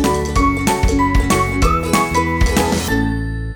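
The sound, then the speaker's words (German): A short, bright electronic phone ringing jingle as a call is placed: a rhythmic run of bell-like tones that ends on a held note. No one speaks over it. “also, Ole, komm, wir rufen ihn mal an. Klingel, klingel, wir kommen.”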